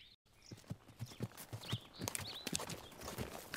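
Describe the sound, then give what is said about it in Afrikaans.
Horse hooves clip-clop at a steady walking pace as a king's guard rides his horse, a run of sharp knocks, with faint birdsong chirping in the background and no voices. “Hy klim vir sy perd af en gaan nader.”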